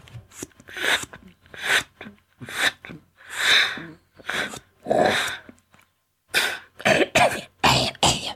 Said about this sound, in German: Er hustete. Ja, wer ist denn das jetzt? Da draußen vor der Tür, der da so hustet. Wer ist denn dort?